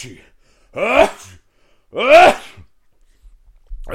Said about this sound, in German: musste noch dreimal niesen.